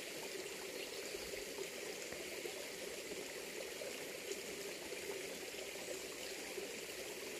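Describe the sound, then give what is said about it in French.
A steady forest stream in autumn babbles and splashes over small cascades, a continuous bright rushing of water with no voices, the flow even and unbroken throughout. “de tous ces petits mouvements induits par le courant et les petites cascades.”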